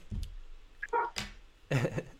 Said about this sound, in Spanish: Escuchó un perrito.